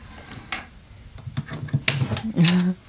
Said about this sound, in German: Können wir die Schublade mal aufziehen? Also ja, wenn ich hier mal einen Schlüssel mir hole. Also hier nicht, aber hier unten.